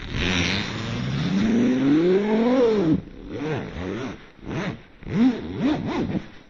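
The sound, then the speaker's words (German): A voice imitates a long tent zipper being pulled open: a rising, buzzy drawn-out sweep lasting a few seconds, followed by several short, choppy vocal bursts, fairly loud. “Also schon allein so, weil man muss ja ganz lang diesen Reißverschluss aufziehen.”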